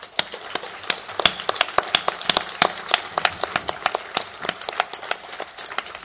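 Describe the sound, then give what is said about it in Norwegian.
A TV studio audience applauds steadily as a guest is invited up to join the host, many hands clapping in a dense, irregular patter at moderate loudness that holds for several seconds without fading. “Gi henne en varm applaus.”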